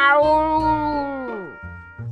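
A single long, drawn-out meow from a cat named Xiaohuzi (小胡子), who roars it while pretending to be a lion. It is loud and tonal, its pitch sliding steadily downward before trailing off, followed by a low steady background tone.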